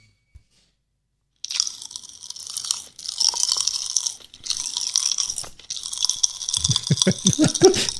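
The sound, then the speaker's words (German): Pop Rocks popping candy crackles and fizzes inside a person's mouth in a dense, continuous stream of tiny snaps, fairly loud, with a few brief pauses and some chewing sounds near the end. “Und ich spiele das jetzt mal eben hier ab und dann könnt ihr mal hören, wie das so schön knisterte bei ihm im Mund.”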